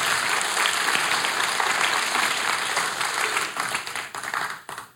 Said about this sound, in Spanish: Un aplauso. Para las mujeres.